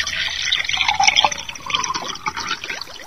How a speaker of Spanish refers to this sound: Lo primero es agregar agua hasta la mitad de cada vaso. Mucho cuidado al manipular vasos de vidrio.